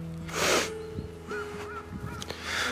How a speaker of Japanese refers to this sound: あれっすかねあなんかカラスが鳴いてますね